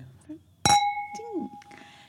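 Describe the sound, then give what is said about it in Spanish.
Wine glasses holding a light reserva wine meet in a single bright clink during a toast, leaving a clear ringing tone that hangs for over a second while voices murmur softly underneath. “No nos cuentan de qué tipo de barrica es, pero por lo que hemos probado, por cierto, ay, brindemos.”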